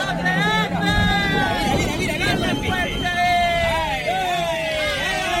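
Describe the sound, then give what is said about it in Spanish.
A group of people in the port of Barbate, Spain, shouting and cheering on drug traffickers as a narco speedboat rams a Guardia Civil vessel, loud overlapping voices with high rising yells, steady throughout over a rumbling, wind-buffeted background with a low engine-like drone. “A la dureza del suceso se suman los, los gritos de un grupo de personas animando a los narcos.”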